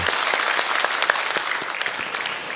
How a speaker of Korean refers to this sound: 새벽에 우리 적지 않은 미취와 그 어린이들도 함께 유년부, 초등부, 청소년들 부모님과 함께 이렇게 노트 테이킹 하면서 하는 우리 아이들 위해서 좀 박수로 격려해 주셨으면 좋겠어요. 네, 너무 잘한다.